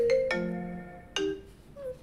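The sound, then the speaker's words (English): A computer call notification rings out in bright, bell-like electronic tones, several quick notes with a pause before another burst, fairly loud with no one talking. “Listen, I silenced my phone. You didn't silence your computer.”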